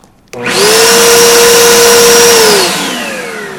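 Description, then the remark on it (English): A leaf blower motor kicks on suddenly with a loud, steady whine and roaring airflow, holds for about two seconds, then winds down as the pitch drops. No one speaks. “This leaf blower is not a lantern, it's not Febreze, and you can't taste it like apple cider vinegar, and it's not refreshing like water.”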